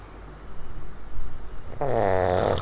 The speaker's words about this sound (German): Über die Jahre hat er Dutzende und Aberdutzende schnarchende Menschen aufgezeichnet vor allem auf Reisen oder wenn Gäste zu Besuch sind.